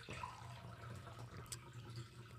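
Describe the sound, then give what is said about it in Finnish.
Water trickles steadily into a glass for a couple of seconds, a quiet, continuous pour with faint splashing and no one talking. “laita vähän lisää vettä vaan niin, niin, niin.”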